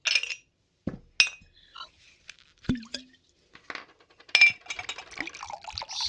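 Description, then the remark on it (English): Glasses clink and knock together a few times, followed by the gurgle and splash of scotch being poured into them, with no talking. “There's some scotch over there. Help yourself. Thanks. Hey, pour me one too.”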